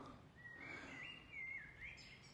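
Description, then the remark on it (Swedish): A bird sings outdoors on a forest trail in Klippan, in a continuous, warbling line of high chirps and trills, fairly faint over a soft background hiss, with no one talking. “Det har blivit mycket fågelkvitter i mina avsnitt här nu i den här säsongen och eh, jag kom till ett ställe här på en eh, skogsslinga i klippan.”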